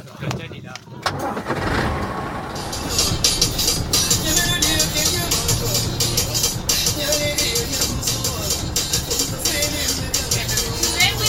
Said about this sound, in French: Grosse ambiance dans le bus retour de la course. Musique locale, Cap Vert. Grosse ambiance.